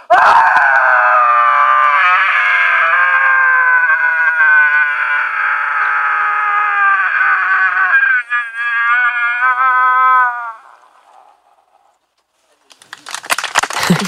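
Marina Abramovic lets out one long, loud, sustained primal scream lasting about ten seconds from a platform at a height, looking down into the depth, wavering slightly before it fades, followed by brief silence and then some rustling.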